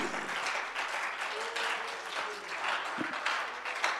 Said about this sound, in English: Hey, give him a hand clap of praise on that one.